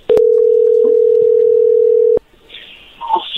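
A loud, steady telephone dial tone hums at a single low-mid pitch for about two seconds while a call is being placed, then cuts off abruptly, leaving faint background rustling.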